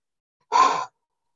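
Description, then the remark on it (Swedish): A single deep, gasping inhale, loud and lasting under half a second, performed by a voice imitating someone swimming up from the sea bottom to the surface and catching their breath; silence on either side. “så här och andas liksom den här, du får den bilden”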